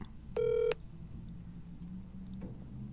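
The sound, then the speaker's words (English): One short, steady electronic telephone tone, like a keypad beep while dialing a call from a live radio show, sounds clearly over a low background hum, followed by quiet with no talking. “See if Doc will pick up.”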